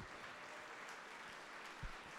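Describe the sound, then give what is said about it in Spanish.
A crowd at a church service applauds the Lord steadily, a dense wash of many hands clapping together at a fairly even level, with a few sharper claps popping out near the end. “Si le van a aplaudir al Señor, aplaudanle fuerte todos.”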